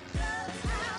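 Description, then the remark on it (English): A steady, broad roar of an airplane passing overhead, with faint whining tones riding on top and two low thuds of wind buffeting. No one speaks. “Is that a plane? I, oh, sh- it's a plane.”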